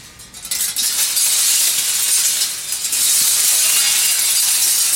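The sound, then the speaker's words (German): Old flat metal sheets hung from loops rattle in a loud, continuous shimmering wash of bright, hissy metallic noise, sustained for several seconds without distinct individual clangs, with no voices. “Blech, Flachbleche, die an Schlaufen aufgehangen sind.”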